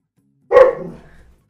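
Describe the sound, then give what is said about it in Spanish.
A single sharp, loud dog bark with a brief tail of resonance fading out over about a second; no voices. “Ahí está. Protegiéndonos. Está protegiéndonos, según él.”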